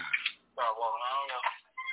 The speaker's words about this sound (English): I got I got I got another artist who's actually calling my phone right now